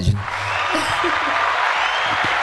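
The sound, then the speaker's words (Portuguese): A steady wash of a professional applause sound effect, crowd clapping, fills the whole stretch at fairly loud volume, with faint voices murmuring low underneath. “Palmas, palmas, profissional.”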